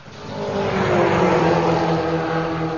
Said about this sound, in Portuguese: Um veículo vindo no sentido contrário, em alta velocidade, colhe a moça que caminhava rente à guia da calçada.